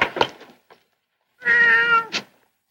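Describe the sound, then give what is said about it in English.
A cat lets out a single drawn-out, whiny meow, fairly loud, preceded by a few brief rustling or clattering noises and followed by a short breathy sound. “Okay, kitty. Welcome to Shangri La. Sit down and make yourself at home.”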